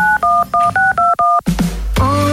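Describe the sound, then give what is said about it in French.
An answering machine is switched on: six quick, evenly spaced keypad beeps, then a clunk, a burst of hiss and a rising electronic tone, all fairly loud with no voices. “bascule ce répondeur”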